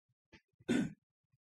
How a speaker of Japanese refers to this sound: えー、咳払い失礼します。